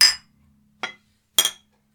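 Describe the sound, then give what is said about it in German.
Glasses of beer clink together in a toast, three bright, ringing taps spaced unevenly over two seconds, fairly loud, with a faint fourth touch at the end and no talking. The beer is Stiftungsbräu from Erding, Bavaria. “Diesmal ähm, ja, mit einem Bier, was auch wieder besonders ist. Wie immer. Äh, Stiftungsbräu aus der wunderschönen bayerischen Stadt Erding.”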